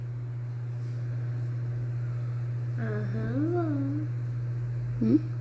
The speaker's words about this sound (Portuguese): Ai, Deus. O pai tá colocando carro pra dentro.